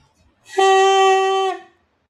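A single held note from a saxophone mouthpiece attached to its neck, a steady, buzzy, reedy tone lasting about a second, loud, with no talking and quiet before and after.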